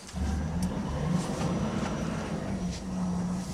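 A loaded log truck heading to a factory drives with its engine droning loudly and steadily, a deep continuous rumble with slight shifts in pitch and no talking.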